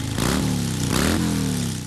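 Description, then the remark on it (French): A motorcycle engine belonging to an enthusiast is restarted during servicing and revs loudly, with two sharp throttle blips rising in pitch before settling into a steady rumbling idle, no voices present. “Moi, je redémarre la machine d'un passionné.”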